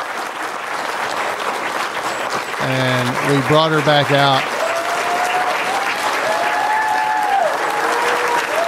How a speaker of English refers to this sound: for those just watching, uh, Betty leaves the stage, and the crowd just continued to uh, applause for her.